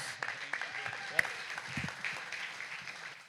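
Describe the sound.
Audience applause: a dense, steady wash of many hands clapping for a few seconds, with one sharp louder clap standing out and scattered voices mixed into the crowd noise.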